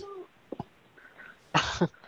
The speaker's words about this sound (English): also like Gesundheit.